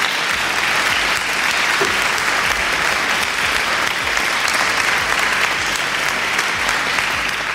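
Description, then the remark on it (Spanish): Steady applause welcoming artists who are guests for an interview, a dense rush of many hands clapping at a constant, fairly loud level for several seconds without pause or speech. “Y a mí lo primero que me gusta hacer es darles un aplauso para que se sientan cómodos.”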